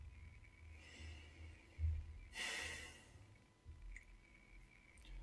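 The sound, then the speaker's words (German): A man gives a single exasperated huff, a short breathy snort pushed out through the nose, soft, standing alone against a quiet low rumble with no talking. “Da schnauft er.”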